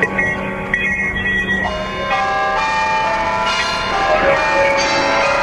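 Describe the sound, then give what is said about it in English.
Several bells ring loudly together in a continuous, overlapping clangor, rung by several people to mark the start of the Olympics, their bright tones sustaining and layering throughout with no pauses, full. “Everybody, ring your bells loudly for the start of the Olympics.”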